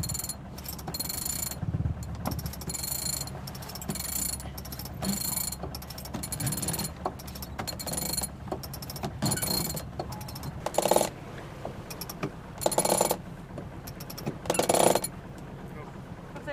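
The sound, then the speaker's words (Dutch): A sailboat winch ratchets in a run of quick, irregular mechanical clicks and bursts over steady wind-like rumble, with some louder cranking strokes near the end. “Lierhendel los en dan...”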